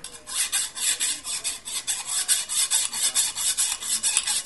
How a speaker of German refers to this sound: Ich hol schon mal die Eisensäge.